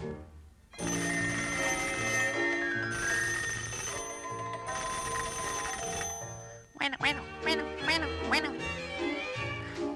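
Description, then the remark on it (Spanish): Rapid, nasal duck quacks burst out in a busy run over the final few seconds, fairly loud, following a stretch of sustained ringing, bell-like tones. “¿Qué tal, doña Patita? ¡Qué milagro, comadrita, que se deje usted oír!”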